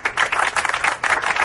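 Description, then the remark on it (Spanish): A group applauds after beating its own record by two minutes, a steady burst of many hands clapping together with a brief dip about two-thirds of the way through before picking up again. No one speaks over it. “Hemos batido nuestro propio récord. Un aplauso.”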